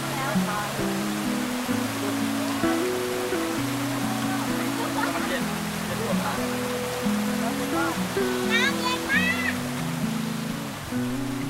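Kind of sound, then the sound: nature, waterfall rushing water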